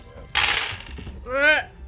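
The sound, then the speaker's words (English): A quick, bright clatter of dice tumbling across a hard tabletop for about half a second, followed shortly by a rising vocal exclamation. “roll one more time”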